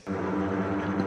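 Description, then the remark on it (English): A dark, sustained low string chord drones steadily and fairly loud, a brooding orchestral swell with no voices, played as Batman-style strings in a MIDI arrangement. “Every Dark Knight movie ever starts with this for like five minutes.”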